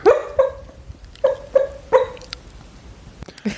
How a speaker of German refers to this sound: Wenn es im Hintergrund jault und man das hört über das Mikrofon, unser Hund träumt.